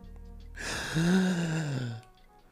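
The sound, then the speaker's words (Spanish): A voice imitates the startled gasp of a badly frightened person: one sudden, breathy intake of air that turns into a strained, voiced rasp for about a second and a half, fairly loud, then breaks off. “Pero alguien, por ejemplo, que se asusta muy cabrón.”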